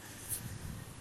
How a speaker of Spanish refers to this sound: Y si escuchan algún ruido de fondo como semiestático, no es estática, es el ventilador que pues me da directamente para acá, me dan ganas de subirle la intensidad, pero se va a escuchar más fuerte.